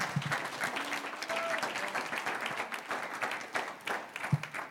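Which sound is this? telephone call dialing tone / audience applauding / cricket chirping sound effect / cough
audience applauding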